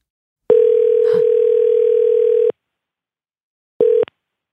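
An outgoing call's ringback tone: one steady, fairly loud electronic purr lasting about two seconds, a pause, then the start of a second ring that cuts off abruptly.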